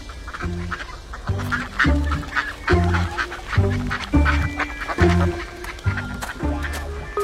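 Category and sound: animal, ducks quacking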